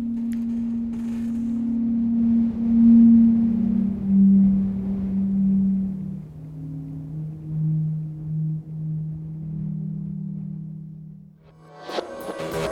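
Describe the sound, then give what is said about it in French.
Wind moans through pipes in Bolivia in a steady, hollow drone, its low pitch sliding and shifting in long sustained tones, ending with a brief burst of noise. “c'est du vent, c'est le son du vent qui passe dans des tuyaux en Bolivie.”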